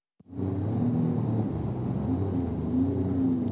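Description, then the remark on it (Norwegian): A jet ski ridden by FrP politician Bård Hoksrud on the Oslofjord roars steadily, a loud continuous motor drone with wavering pitch and a faint high whine riding above the low rumble. “Dette er lyden av Bård Hoksrud som kjører vannskuter i Oslofjorden for litt over et år siden.”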